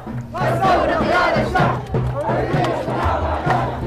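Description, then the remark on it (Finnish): A crowd of many voices shouting and chanting together at a protest area in Sudan, in a steady rhythmic cadence, loud and continuous, with repeated surging calls like a protest march; a woman shouts along with the passing crowd. “Hän huutaa hetken ohikävelevän joukon mukana.”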